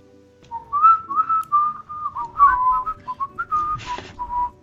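A game's player character whistles a meandering, casual tune for several seconds while heading toward an open trapdoor, the notes rising and falling steadily, with a low rumbling background underneath and a brief breathy burst near the end.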